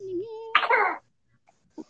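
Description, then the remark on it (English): A single loud sneeze bursts out right after a short tonal vocal sound, followed by near silence and a faint small noise at the end. “Bless you, girl, boy.”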